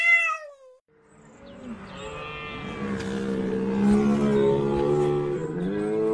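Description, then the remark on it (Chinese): A red deer stag in autumn in a Northern European forest gives a long, drawn-out bellowing roar, deep and harmonically rich, swelling loudly after a brief higher-pitched call at the start, much like a cow's moo or a lion's roar. “怒吼的家伙——马鹿”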